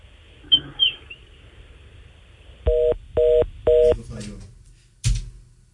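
A phone line's disconnect tone after a caller's call drops: three evenly spaced, steady electronic beeps, fairly loud, preceded by faint chirps and followed by a sharp click.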